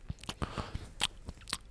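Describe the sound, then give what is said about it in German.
A voice imitates the loud, wet lip-smacking of a woman talking in a documentary: a quick series of about eight moist clicks and smacks in an uneven chewing rhythm, with no words spoken. “sie schmatzt dabei so krass”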